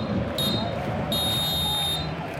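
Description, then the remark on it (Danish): A French referee's final whistle ends Denmark's match in Belgrade on a September evening, sounding twice, a short blast followed by a longer, sustained one, shrill and clear above a steady murmur of a stadium crowd, as a few hundred Danish away fans celebrate the win. “Fløjter kampen af, så man pludselig kan høre de få hundrede danske udbanefans fejre sejren i Beograd.”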